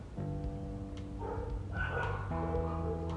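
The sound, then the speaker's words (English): Dogs bark somewhere outside, a few drawn-out, tonal barks and yelps overlapping in quick succession, moderately loud against a steady background hum, with no one talking. “Oh, this is getting really deep, and there's dogs barking outside.”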